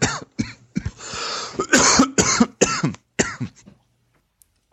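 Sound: heavy coughing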